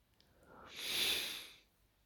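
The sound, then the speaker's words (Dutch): A dog lying on a couch beside a person lets out one long, deep sigh, a breathy exhale that swells and then fades over about a second. It is soft, with no talking. “Maar ik zit op de bank en mijn hond ligt naast me. En je doet even een hele diepe zucht.”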